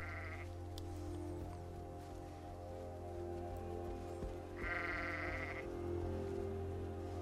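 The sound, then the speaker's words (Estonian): A lamb bleats twice, the first cry short and the second a longer wavering call, over a steady low hum, with no voices present. “jaa, lämm, lämm on õige vastus”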